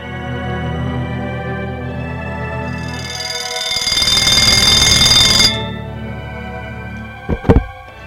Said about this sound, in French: C'est le réveil qui l'a réveillé.